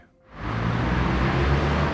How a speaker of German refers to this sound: Hier an der Schielkreuzung in Limburg wird es sehr deutlich, die Stadt hat ein Verkehrsproblem.